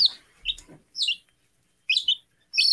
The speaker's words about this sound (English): Oh, I sorry, I have an interruption here. We just got some new baby chicks.